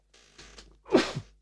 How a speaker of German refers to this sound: So, jetzt muss ich glatt niesen. Ähm, Gesundheit.